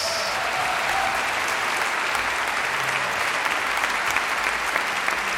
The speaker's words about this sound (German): Meine Damen und Herren, noch einen Applaus bitte an der Harfe Esther Peres-Terakis.